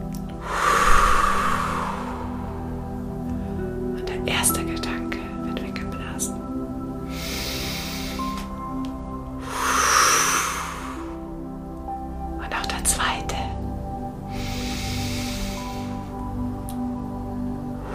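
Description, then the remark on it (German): Slow, deliberate breaths in a guided conscious-breathing exercise, with several forceful, airy exhales blown out in a steady rhythm, each a broad hissing rush, separated by quieter inhales over a soft background hum. “Aber jetzt so die ersten hartnäckigen kannst du jetzt mit dieser bewussten Atmung wegpusten.”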